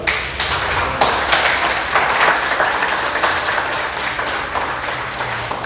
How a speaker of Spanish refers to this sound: Amén. Un aplauso para Dios.